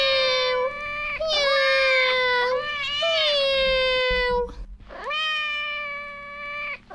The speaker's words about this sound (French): Ce qui peut aussi faire miaou. Un chat. Miaou.